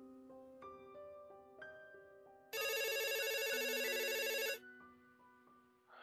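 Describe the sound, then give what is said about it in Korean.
A telephone rings as a father gets a sudden call from his sons: a short melodic ringtone of clear electronic notes, then a loud, buzzing ring trill held for about two seconds before it cuts off. No voices. “장 씨는 첫째 아들과 둘째 아들의 갑작스런 전화를 받게 되었다”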